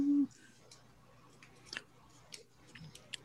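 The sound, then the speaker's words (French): A sheet of paper being handled: a few brief, soft crinkles and rustles spaced apart, with a short low hum at the start and no talking. “Euh, euh, euh la avec mon papier.”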